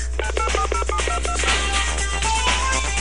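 A rapid run of telephone keypad dialing tones, about nine or ten short beeps in quick succession as a toll-free number is dialed, followed by a busier mix of tones and clicks, fairly loud with no talking.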